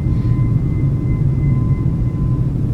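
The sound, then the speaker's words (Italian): A steady, loud airplane cabin drone: deep engine rumble filling the low end, with faint constant whining tones above, unchanging throughout and with no voices. “Sono in aereo.”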